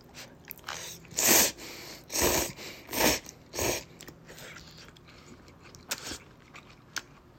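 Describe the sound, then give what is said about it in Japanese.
Four loud slurps of instant dandan noodles with sesame paste, eaten without mixing, come in quick succession, followed by a stretch of quieter wet chewing with a few sharp clicks, and no talking. “えー、咀嚼音がしますので、はい。ご了承ください。”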